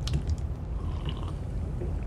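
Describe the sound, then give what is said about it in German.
Wet slurping of coffee, a few quick sips at the start and then a softer, continuous mouth noise over a low rumble, with no one speaking. “Wilson hört auf, an seinem Kaffee zu schlürfen und mischt sich ein.”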